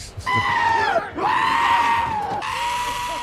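A goat bleats loudly, three long, quavering cries in quick succession with a shaky, wobbling pitch and no pauses of silence between them.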